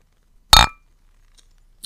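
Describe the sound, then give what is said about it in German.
A single sharp clink of a glass container, bright and ringing briefly before fading, in otherwise quiet surroundings. “Also, das ist jetzt Glas und jetzt können wir das gerade mal auch noch mit Kunststoff machen.”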